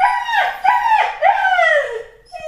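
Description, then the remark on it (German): A dog barks in a run of loud, drawn-out yelping cries that slide downward in pitch, repeating several times in quick succession with no one talking. “Nie wieder nehme ich die mit dem Hund auf.”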